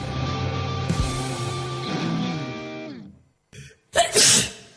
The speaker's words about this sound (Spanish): Todas las personas cierran los ojos al estornudar.